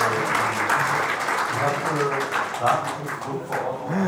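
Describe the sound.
Steady crowd applause fills the background, a dense wash of many hands clapping at moderate volume, with indistinct voices murmuring through it.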